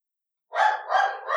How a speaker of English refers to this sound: Oh, I hear dog bark. I was wondering when mine would start barking. Yes, there's somebody walking across the street.